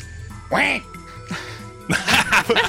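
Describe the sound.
A person imitates the goose from The Title Goose Game with a short nasal, bending honk, then a second briefer honk, followed by a burst of laughter or talk.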